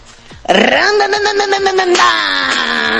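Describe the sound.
A woman, the speaker's aunt, imitates a motorcycle with her voice: a loud, buzzy drone that revs upward in pitch, then holds steady with a rattling, pulsing texture for a few seconds.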